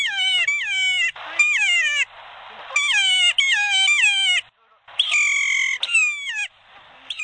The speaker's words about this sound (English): Ruffian and Kea, New Zealand's mountain parrot, rise with their familiar cry.